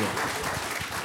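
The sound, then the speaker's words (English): Church audience applause for the band at Williamsburg Christian Church, a dense, steady wash of many hands clapping at once, holding an even loudness throughout with a faint murmur of voices mixed in. “hey y'all give them a hand.”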